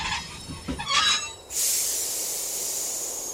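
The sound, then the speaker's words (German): A train rolls along the rails with a brief rumbling clatter, then stops for the first time, giving way to a steady, fairly loud hiss that continues to the end. No voices are heard. “Der Zug hat zum ersten Mal angehalten.”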